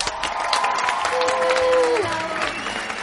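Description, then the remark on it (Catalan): Steady applause from an audience fills the whole stretch, a dense wash of clapping with some cheering, while a sustained musical tone rings briefly through the middle, welcoming a guest to the show Serveis Mínims. “Un aplaudiment!”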